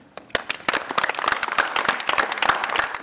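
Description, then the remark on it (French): An audience breaks into applause, a dense patter of many hands clapping at a fast, uneven rhythm that holds steady and fairly loud for a few seconds, with no voices standing out. “Je vous propose qu'on applaudisse ceux qui ne peuvent pas rester avec nous.”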